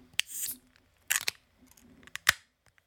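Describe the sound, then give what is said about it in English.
Several cans of dessert beer crack open, each a sharp metallic snap followed by a short hiss of escaping fizz, coming in quick, uneven succession with no talking. “Is there much better than the sound of a beer can opening?”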